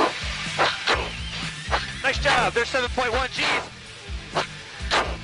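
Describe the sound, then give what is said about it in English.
Strained, hitching grunts and sharp breaths from a person under high G-force, breathing this way to keep oxygen and blood in the upper body while pulling straight up into the vertical, in short repeated loud bursts over a steady low rumble, with a brief spoken remark from another voice. “your legs and your butt, and you do this hitching breath”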